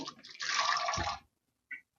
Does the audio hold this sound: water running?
yes